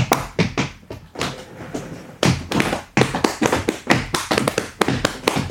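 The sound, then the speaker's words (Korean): Quick rhythmic clapping that alternates between slapping the legs and clapping the hands: a steady run of sharp, loud smacks and duller thumps in a repeating pattern, with no talking. “다리랑 손으로 박자 맞추는 박수 아시잖아요.”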